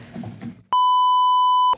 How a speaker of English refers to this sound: Do you guys enjoy misery? Oh, you're making me beep it.